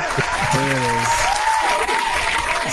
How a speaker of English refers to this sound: I need the applause, please. Yes, yes. applause. Thank you.